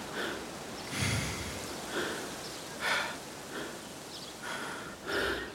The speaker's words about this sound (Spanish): Al llegar a la cima, una brisa fresca golpea mi rostro. Jadeo, tanto por la sorpresa como por el cansancio.